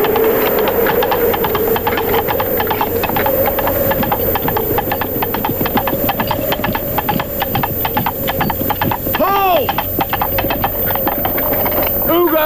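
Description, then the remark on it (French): Horse hooves clip-clop in a brisk, steady rhythm, fairly loud, continuing throughout, with a brief wavering tonal call near the end, from the opening gag of Monty Python and the Holy Grail, where King Arthur seems to arrive on his steed. “le génial premier gag de Sacré Graal où l'on croit voir arriver le roi Arthur sur son fier destrier”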